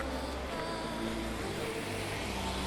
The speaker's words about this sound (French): C'est particulier ce Stockholm la nuit, il y a pas mal de, de petites guirlandes et une espèce de sérénité, un certain calme qui s'est emparé de la ville, seules quelques voitures viennent briser le silence.